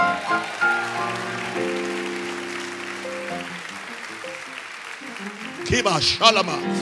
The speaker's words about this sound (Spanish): Alguien déle un aplauso fuerte al Señor.